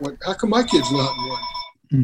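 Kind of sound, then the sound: household object, telephone ringing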